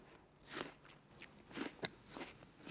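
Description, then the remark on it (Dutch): Crisp bites into a crunchy Pink Lady apple, followed by several sharp, wet crunching chews. The bursts come irregularly with short pauses between, and no one speaks. “Nee, dit is ook een Pink Lady. Want heb je dezelfde gepakt? Ja, ik heb dezelfde gepakt. Oh ja, je hoort het al aan het knakken.”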